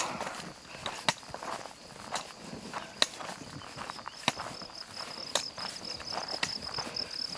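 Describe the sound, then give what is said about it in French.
Slow walking footsteps fall roughly once a second in an unhurried, even rhythm, over a constant high chirring of crickets; no one speaks. “trouver ma pulsation, régler mon pas sur le tempo d'une marche qui serait juste pour moi.”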